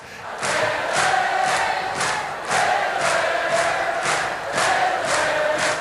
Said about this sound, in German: Hämmerle und Neger lassen sich bejubeln und besingen, gehen ab.